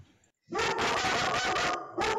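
dog barking

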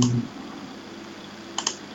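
computer mouse clicking

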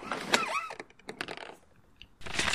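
window being opened

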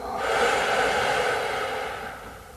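deep exhale

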